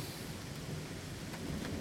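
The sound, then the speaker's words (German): Steady rain hisses continuously while a deep, low rumble of thunder rolls underneath, a constant wash of storm noise with no voices. “Der, die kommen komplett aus dem Wasser jetzt bei dem Regen.”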